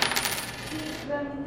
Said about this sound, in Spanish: Y esta moneda es de 200 pesos.